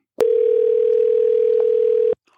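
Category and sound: signal or alarm, telephone ringing tone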